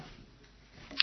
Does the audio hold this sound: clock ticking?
yes